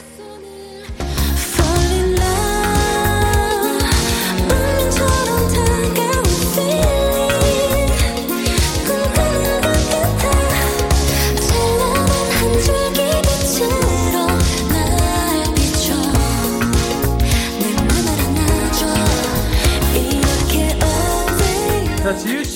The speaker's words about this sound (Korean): 그리고 운명적인 사랑을 표현한, 표현한 곡입니다. 아, 그리고 지금 들리시는 것처럼 이 시티팝 장르인 것 같은데 굉장히 또 매력 있더라고요.